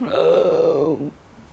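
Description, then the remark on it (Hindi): A single loud, drawn-out burp rumbles for about a second, full-bodied, then cuts off abruptly into near silence. No talking accompanies it. “बड़ी सी डकार लेता था तो उसकी डकार की आवाज़ सुनते ही पक्षी भाग जाते थे”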